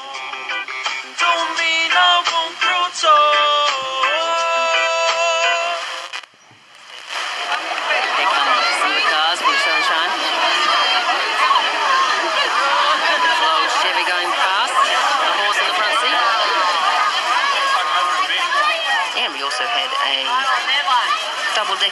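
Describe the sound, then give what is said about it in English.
A brief tonal, sung or amplified passage gives way to a dense, continuous wash of crowd chatter at a street parade in New Zealand, many voices overlapping at a steady, fairly loud level. “It sounds like they're calling a parade.”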